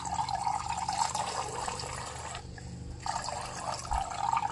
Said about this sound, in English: If you can hear, this is the lemon juice going in to the cup, the measuring cup.